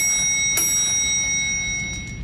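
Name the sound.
bell ringing sound effect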